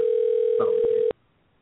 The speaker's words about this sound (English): Hey, we're calling somebody.